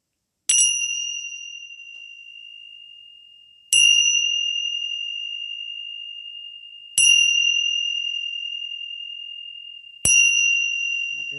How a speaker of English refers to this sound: I'm going to play some Tingsha bells, my um, dragon Tibetan Tingsha bells, to get a little bit of the chi going.